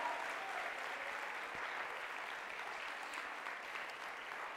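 An audience claps steadily in applause for Jesus, a dense, even wash of many hands applauding without a break for several seconds, with no voices standing out above it.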